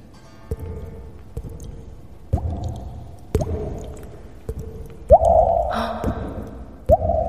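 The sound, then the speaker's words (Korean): A mouth imitating water droplets with echo added, done with a slightly moistened mouth: a series of wet, hollow plinks at uneven intervals, about eight in all, fairly loud, with a couple of louder, longer ringing drops near the end. “다음 주에 또 아, 물방울 소리 넣어서요?”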